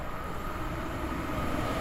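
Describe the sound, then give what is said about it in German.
A train bound for Pforzheim rushes past the former Kalf station, a red sandstone building, without stopping, a loud, steady rumble and rush of wheels on rails filling the whole moment, with a faint high whine above it and no voices. “Die Bahn nach Pforzheim fährt vorbei, ohne anzuhalten.”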